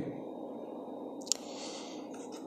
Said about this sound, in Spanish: desde mi televisor que se escuchan las olas, porque puse un video de olas. Bueno, creo que el video se llama Fall Asleep with Relaxing Web Zone at Night. Es un mar anoche, en vivo.